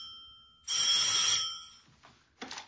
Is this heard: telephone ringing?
yes